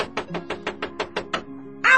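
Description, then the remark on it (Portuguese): A quick, steady run of about eight knocks on a door, fairly loud, as someone impatiently demands it be opened, then a short pause before a voice briefly cuts in at the very end. “essa porta de uma vez, pô!”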